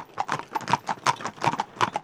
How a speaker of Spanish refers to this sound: y mil y pico caballos que se mueven hacia adelante, acompasando el ruido de los cascos y herraduras